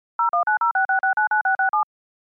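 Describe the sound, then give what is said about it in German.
A quick, even run of about a dozen short electronic telephone beeps, each a clean two-note tone, like a number being dialed on a mobile phone. Moderately loud, with no voices. “Dann rufe ihn mal mit deinem Handy an.”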